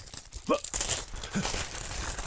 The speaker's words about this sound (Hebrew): ברהמיני, זה... זה... שק מלא מטבעות זהב? השתגעת? יחשבו שגנבתי את זה מהארמון!